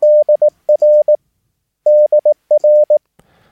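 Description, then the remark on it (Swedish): A steady, clean Morse code tone keys out the letters D and R, the radio abbreviation for "dear", short pause, then the same two letters again, crisp dots and dashes heard alone with no voices. “Och dear är förkortas, förkortat då DR, David Rudolf.”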